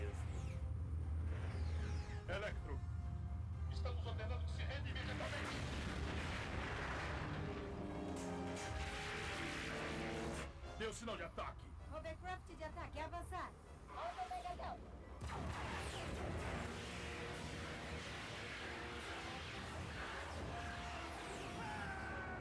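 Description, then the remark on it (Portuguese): Cartoon laser shots and sparks fire off in every direction in a dense, nonstop barrage of zaps, whooshes and booms, loud, with voices mixed in beneath the chaos. “beleza, tiro de laser para tudo que é lado agora.”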